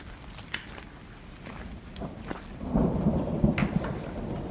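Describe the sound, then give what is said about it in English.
Steady rain hisses throughout with scattered sharp drips, and a deep roll of thunder swells up partway through and rumbles on to the end. No one speaks. “Here comes the rain again. Yeah, the rain started.”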